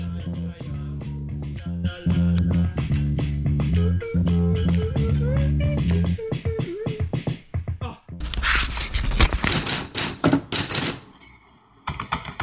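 Rapid keystrokes clatter loud in a dense burst near the end as a man types a text message, following a stretch of soft melodic tones with light tapping beneath them; no one speaks.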